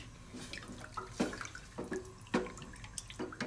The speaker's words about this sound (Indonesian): Yang pertama gue udah didihin air di panci. Ini yang penting jumlah airnya bisa cover dua buah mie instan tadi. Kita tunggu sampai bubbly-bubbly gitu, sampai mendidih.